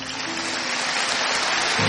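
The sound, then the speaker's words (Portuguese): Sustained audience applause, a dense, steady wash of many hands clapping at an even loudness for the full two seconds, with no voices over it. “Agora eu queria que você desse uma salva de palmas para esse povo aqui.”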